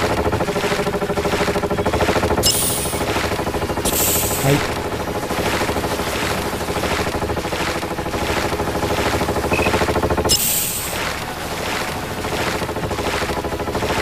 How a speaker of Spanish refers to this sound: Aparece un helicóptero.